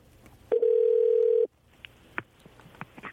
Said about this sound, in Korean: 이분한테 전화 한번 걸어볼까요? 1508님, 1508님한테 전화 한번 걸어보겠습니다.